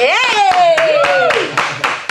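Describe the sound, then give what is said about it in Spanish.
Applause from a group on the Caribe FM radio program, with a dense patter of claps and a few sharper bursts, while a voice lets out a long, falling cheer over it. “Bueno, yo, quiero compartir ese aplauso”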